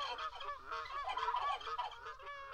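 A flock of turkeys gobbling, their warbling, overlapping calls running continuously, fairly loud, with no voices or other sounds.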